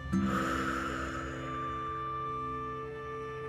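A soft, airy breath pushed out through the mouth after a deep inhale during a breathing exercise with eyes closed and hands on the chest, a gentle whoosh that fades over about a second, with a steady low hum lingering underneath and no talking.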